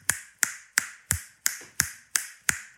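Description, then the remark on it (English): Eight sharp, loud finger snaps in a steady, even rhythm, each a crisp bright crack with a quick fade, spaced about a third of a second apart with no talking. “I've got a really loud click.”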